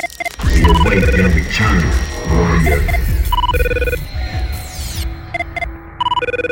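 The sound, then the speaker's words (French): The CTU phone ringtone of Jack Bauer, used as a phone ringtone: an electronic office ringtone chirps in repeated, evenly spaced tonal bursts, loud. Voices talk over the first half before the ringing continues on its own. “La sonnerie de la CTU de Jack Bauer.”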